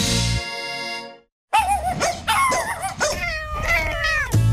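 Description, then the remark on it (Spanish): A cat meows while a dog barks in loud bursts, the yowls and yelps overlapping in quick succession after a brief pause at the start. “Escuchar a tu mascota sana es música para tus oídos.”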